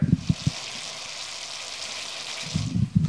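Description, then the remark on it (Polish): Raw grated cauliflower, lentils and coconut milk with an aromatic spice mixture sizzle in a pan, a steady crackling hiss with bursts of low thumping at the start and end, with no voices. “Skwierczy.”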